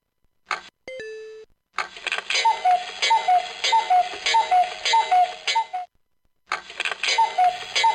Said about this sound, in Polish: No dobrze, to my teraz czekamy na uruchomienie się budzika.